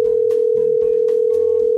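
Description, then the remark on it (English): A steady, unbroken telephone dial tone hums at an even loudness throughout, clear, with faint soft rustling beneath it and no voices, as a phone call is placed to W. Earl Brown. “Let's see if we can get W. Earl on the phone.”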